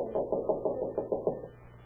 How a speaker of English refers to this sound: I was sitting home alone. It was about 8.30 or quarter to nine when I heard a knock.